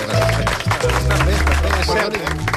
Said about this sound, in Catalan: Sí, sí un aplaudiment.